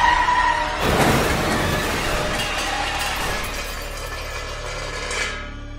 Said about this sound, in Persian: ماشین با سرعت به دیواره تونل برخورد کرد و صدای خورد شدن شیشه ها در آن پیچید.